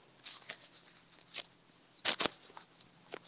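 Scratchy rustling and crackling bursts with a couple of sharper scrapes as clothes rub directly against a microphone, irregular and uneven with no voices.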